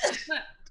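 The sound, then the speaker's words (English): A single short cough, fairly loud, with a quick raspy burst followed by a brief throaty tail, heard on its own without talk. “oh, bless you.”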